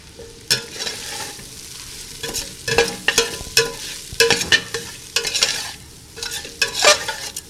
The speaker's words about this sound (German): Die Zwiebel und den Knoblauch habe ich dann noch mitgebroten, dass ein schönes Röstaromen entsteht.